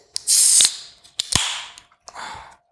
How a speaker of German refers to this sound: auf jeden Fall habe ich hier Gude und es kommt in der Dose. Ich mache das mal auf.